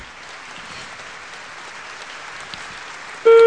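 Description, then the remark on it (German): Steady, dense applause from a sizable studio audience in the hall of a Reinhold Beckmann TV show, a wash of clapping that holds even throughout, cut off at the end by a loud sustained electronic tone. “Aber das Saalpublikum scheint gut drauf zu sein”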